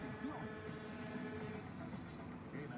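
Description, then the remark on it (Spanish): A vehicle horn blares steadily from behind amid the rumble of heavy city traffic and engines, sustained through the whole moment. “Ahí pita alguien atrás, no, me imagino que es el camión.”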